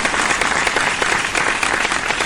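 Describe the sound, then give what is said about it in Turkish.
A steady burst of applause, many hands clapping densely and continuously at a fairly loud, even level throughout, with no voices standing out. “Ya, o okey de zaten başka türlü alkışlar sana.”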